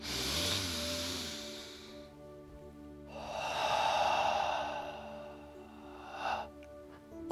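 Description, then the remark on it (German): Two slow, deep breaths into the belly during a guided breathing exercise: a long airy inhale fading out, a brief pause, then a fuller, rushing exhale that swells and trails off. No talking. “Und tief, wirklich tief in den Bauch atmen.”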